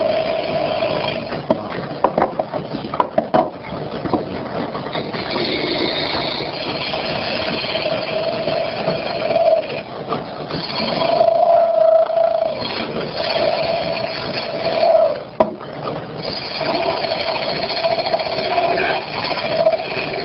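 A craftsman turns wood on a lathe: a steady motor whir runs throughout, with rough scraping and cutting bursts from the tool, fairly loud with no voices.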